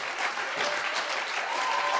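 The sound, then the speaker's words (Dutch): An audience applauds women being called up to the stage, in a dense, continuous wash of clapping that stays steady and fairly loud throughout, with a faint whistle-like cheer rising near the end. “naar voren halen die het niet weten, dus geef ze echt een groot applaus.”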